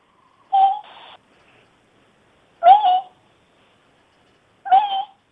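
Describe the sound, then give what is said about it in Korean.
A street-born cat without a pedigree meows three times, each call short and clear, spaced roughly two seconds apart with silence in between; no one speaks. “자, 아무튼 간에 고양이 그, 저, 품종 없는 거 되게 좋았어요.”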